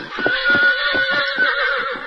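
horse neighing

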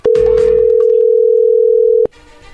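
telephone dial tone

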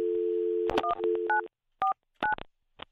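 telephone keypad dialing tones

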